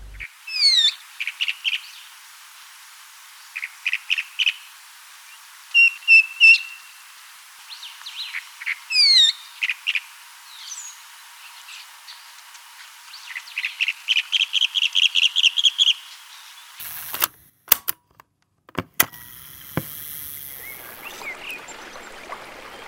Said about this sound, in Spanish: Voy a empezar a buscar su sonido entre los árboles. Nota de voz 2. Aquí veo un grupo de calandrias. Grabo sonido directo.